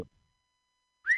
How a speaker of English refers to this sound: Oh, whistle.